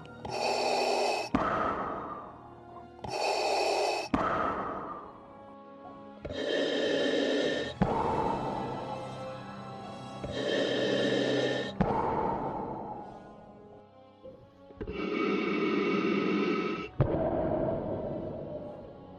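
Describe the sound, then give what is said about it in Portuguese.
Heavy, rasping breaths in and out repeat in a slow, steady cycle, loud, with a harsh, filtered, mechanical quality like breathing through a respirator. No talking. “Na sua visão, você escuta uma respiração ofegante, meia robótica.”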